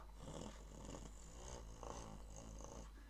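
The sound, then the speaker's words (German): A person imitates a cat's purr with a steady, throaty rumble that pulses gently for about three seconds, with no words spoken. “Schnurren bedeutet, die Katze fühlt sich wohl und macht.”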